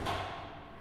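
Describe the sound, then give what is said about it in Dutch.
The door of a meters-long atmospheric boundary layer wind tunnel thuds shut with a single low, booming impact that rings out and fades slowly, in a hangar on the TU Eindhoven campus in the Netherlands, with a faint steady hum underneath. “Wat je hier hoort is het dichtgaan van een meterslange windtunnel die hier ergens achteraf in een loods op de campus van de TU Eindhoven staat.”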